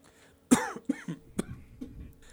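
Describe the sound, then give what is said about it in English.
A loud cough bursts out, followed by a few smaller hacking coughs and throat sounds over about two seconds, with no talking. “Just starting to cough.”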